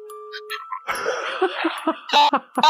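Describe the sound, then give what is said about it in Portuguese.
A short electronic mobile phone chime, from a phone being called, rings out with steady tones for under a second, then gives way to loud bursts of laughter and noisy commotion. “Cara, tô ligando pra ele, tá fazendo barulho de tigum, cara.”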